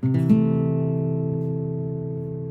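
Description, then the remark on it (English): A guitar chord, fretted with the second finger on the third fret of the fifth string and the first finger barring the second fret of the next two strings, is struck with a quick double attack, then left to ring out, its layered notes sustaining steadily and fading only slightly over a couple of seconds. No one speaks. “I'm going to play that kind of chord.”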